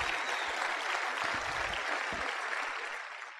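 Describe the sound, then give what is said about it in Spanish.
A crowd applauds steadily, a dense wash of many hands clapping that holds strong for a few seconds before starting to thin out at the end, the audience giving themselves a round of applause. “Y de verdad, de verdad, desen ustedes mismos un fuerte aplauso porque ustedes están haciendo cosas diferentes y van a tener resultados diferentes.”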